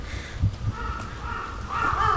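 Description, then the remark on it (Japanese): Crows caw in harsh, repeated calls, a couple of short ones early on followed by a longer, louder stretch of cawing toward the end, heard without any talking. “すごいカラスが鳴いてます”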